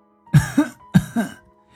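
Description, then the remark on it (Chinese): An old village chief coughs twice after putting down his bowl: two throaty coughs in quick succession, each a sharp burst trailing into a rougher, voiced rasp. They are fairly loud and evenly spaced, with no speech around them. “老村长放下手中的碗，咳嗽了两声，说。”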